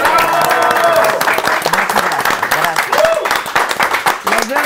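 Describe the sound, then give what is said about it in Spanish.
Steady, dense applause from an audience for Mother's Day fills the whole clip, loud and sustained, with people's voices talking and calling out over the clapping. “Día de las madres, manita. Aplausos.”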